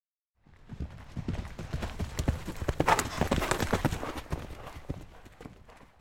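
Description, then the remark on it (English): Horse hooves clip-clopping in a steady, uneven rhythm, moderately loud, starting after a brief silence and continuing throughout with no voices. “Horses at our house came and went”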